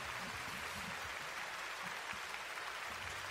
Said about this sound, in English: Keep clapping.